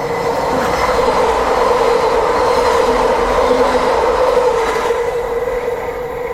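A train rolls by a level crossing in Italy, loud, a steady rumble with a droning metallic hum and faint wheel noise that holds for several seconds. No voices.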